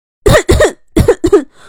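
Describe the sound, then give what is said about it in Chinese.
Four loud, rough coughs come in two quick pairs with a short pause between, each burst harsh and throaty, followed by a faint breath. No one speaks. “姬小飞咳嗽几声，回答道：”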